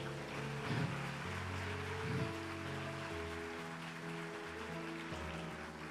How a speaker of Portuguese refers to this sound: Oh Espírito Santo de Deus, você pode bater palma enquanto eu bebo uma água aqui?